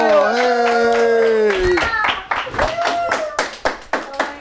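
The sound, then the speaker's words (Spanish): A sustained vocal cheer gives way to steady, rhythmic hand clapping, roughly a dozen sharp claps in a row, with a voice briefly holding a tone over the middle of them. “A ver, vamos a dar una fuerte el aplauso.”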